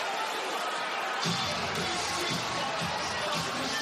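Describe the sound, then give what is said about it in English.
A stunned Toyota Center crowd at a Houston Rockets basketball game murmurs in a steady, broad wash of indistinct voices, subdued rather than cheering, after a seven-point fourth-quarter lead turns into a six-point deficit, with faint low thuds joining after the first second. “A stunned Toyota Center crowd has watched a seven-point fourth-quarter lead turn into a six-point deficit.”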